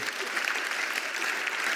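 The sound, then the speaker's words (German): An audience claps steadily for the children's ministry team, a dense, even wash of many hands applauding at a constant level with no voices standing out. “Sollen wir nicht dem ganzen Kinderdienst mal einen großen Applaus geben?”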